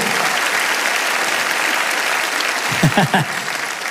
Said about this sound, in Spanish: Alguien tiene que aplaudir más que eso si lo crees de verdad, ¿sí o no?